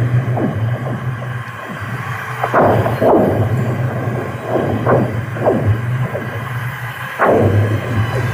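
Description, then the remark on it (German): Eerie singing lake ice on the frozen Ammersee: repeated descending pew-like zings and low booming thuds at irregular intervals over a steady low hum, fairly loud, with no talking. “Also, hier kommt das Eissingen vom Ammersee.”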